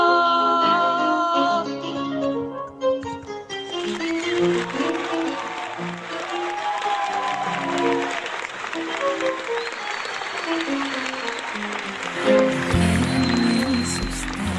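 A song with piano and singing ends after a few seconds, then loud, sustained audience applause fills the rest, with scattered tones and faint voices over the clapping.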